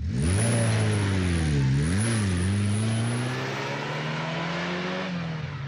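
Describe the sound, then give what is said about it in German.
A car engine revs up and pulls away in the evening, its pitch dipping briefly then climbing as it accelerates, loud, with steady road and engine roar and no talking. “Die Band hat mich, wie ausgemacht, abends am Treffpunkt abgeholt mit ihrem Auto. Ich gleich hinten reingestiegen und los ging's.”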